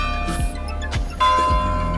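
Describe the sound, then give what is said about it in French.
The bells of a basilica ringing in a steady peal, heard from the esplanade in front of it on a rainy December day, successive strikes roughly every half second layering rich, sustained metallic tones that hum and overlap, fairly loud, with no voices. “Mais comme je dis derrière moi, en fait, vous avez compris, je suis sur l'esplanade devant la basilique et d'ailleurs, les cloches sonnent.”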